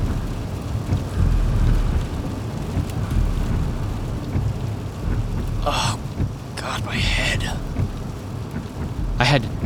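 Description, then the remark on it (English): Heavy rain pours steadily during a storm in a dense hiss while low thunder rumbles continuously underneath, with a few brief, sharp splashing bursts near the end. “Nothing like coming home in the middle of a storm to really put a hell of a damper on you.”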